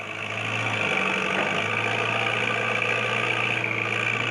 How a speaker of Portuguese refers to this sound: O zumbido da floresta vira barulho de draga e retroescavadeira.